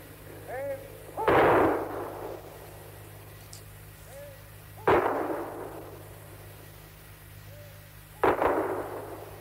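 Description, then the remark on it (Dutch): Three rifle volleys fired by an honor guard at the funeral of Kennedy crack out at even intervals, each sharp report followed by a long echoing decay, with faint birdsong and a low hum between shots. “Zien het getekende gezicht van Robert Kennedy komen de schoten van het erepeloton.”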